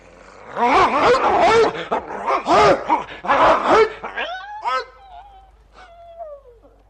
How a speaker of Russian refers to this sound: Бедная собачка, я не успел прийти тебе на помощь.